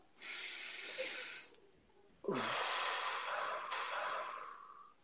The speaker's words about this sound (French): Euh, alors on va dire ensemble, une respiration.